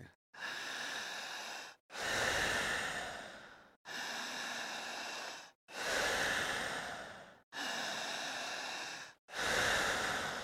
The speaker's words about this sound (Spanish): Fuerte, intensa, potente, jadeante, siempre fuerte, otra vez. Eso, vas muy bien. Otra vez fuerte.